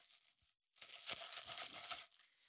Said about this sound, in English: That is the crushed ice that I gifted to myself.